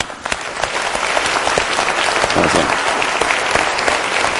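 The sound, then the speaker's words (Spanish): An audience claps for themselves steadily for several seconds, a dense, bright patter of many hands that stays fairly loud throughout without any speech over it. “Vamos a darnos un aplauso, ¿no?”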